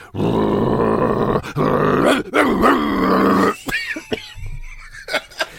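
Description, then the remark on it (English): A man's voice, acting as Bielsa, growls and grunts like an angry dog, a loud, rough, sustained snarl for a few seconds, then trailing into shorter, quieter grunts and huffs. “Well, at that moment, Bielsa begins to growl and grunt.”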